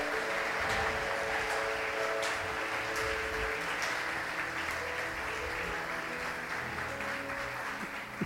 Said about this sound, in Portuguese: Levante profeticamente na sua vida, em todas as áreas, para que você viva tudo isso que Deus tem para você e através de você, em nome de Jesus, aplauda Ele bem forte.